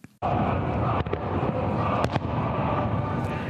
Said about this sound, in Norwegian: Fyrverkeri er et annet av de faste innslagene på diktatorens fødselsdag, til glede for folket. Dette fyrverkeriet er til ære for den skinnende stjerne, fødselsdagen til vår general, vår kjære leder.